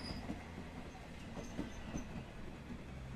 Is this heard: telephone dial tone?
no